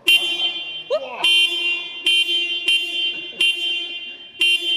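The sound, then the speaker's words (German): A loud, blaring car horn, honked while testing the car, sounds almost continuously, punctuated by a series of harder repeated honks at a steady pace, with a brief voice cutting in early on. “Wir gehen jetzt einmal, wir testen das Auto und dann einmal hupen, oder?”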